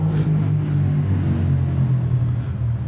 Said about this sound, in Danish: det er lige trafikken, der larmer lidt, ja.